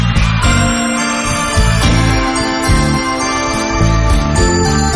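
A rock recording with a prominent keyboard part, bright sustained chords ringing over a steady low bass line, loud and continuous throughout with no voices.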